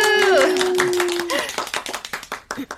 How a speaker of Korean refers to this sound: 와, 박수.